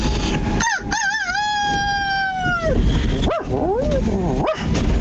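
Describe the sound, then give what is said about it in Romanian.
A rooster crows with a strangely dog-like, howling tone: one long wavering call held for about two seconds, followed by several short yelping bursts, loud against steady background noise. “Uh, Băi, un cocoș un... hibrid cu un câine.”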